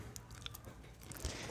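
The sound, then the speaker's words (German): Quiet crunching and chewing, with a few sharp brittle bites standing out from a steady munching rhythm as someone eats a crispy insect snack, a cricket. No one speaks. “Stimmt, wir haben ja noch Snacks.”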